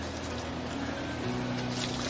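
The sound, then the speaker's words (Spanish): Water splashes and runs steadily as a man washes the spoon he will use to select the product, a continuous watery wash over a low mechanical hum, with no talking. “el lavado de la cuchara con la que va a seleccionar el producto.”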